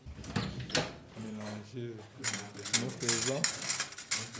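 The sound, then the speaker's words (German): Metal surgical instruments clink and clatter in short irregular bursts as an operating-room nurse sorts clamps and scissors in an operating theatre, while a voice speaks quietly. “Die Klemmen und Scheren hier vor mir sortiert gerade eine OP-Schwester und über dem Operationstisch hängt eine große Lampe.”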